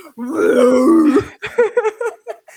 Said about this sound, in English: Oh, you had a burp?